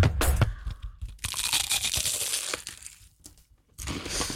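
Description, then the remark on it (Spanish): Loud, flaky crunching as someone bites into a crisp quince-filled pastelito pastry while eating live on air, a burst of crackly, brittle snaps followed by a longer stretch of crumbling chews, then a brief quiet before more crunching. “Cortame ese sonido de morder pastelito que lo vamos a usar, ¿eh?”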